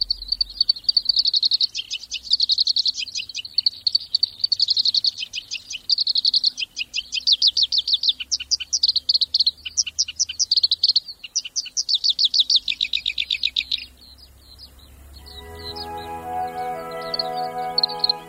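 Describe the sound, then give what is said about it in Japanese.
A black-browed reed warbler sings at the Sarakitanai River in Hokkaido, Japan: a long, fast, scratchy song of rapid repeated trills and chattering phrases, clear, with faint low background rumble; near the end a soft tonal, stacked hum enters. “サラキタナイ川（北海道）のコヨシキリをお届けします。”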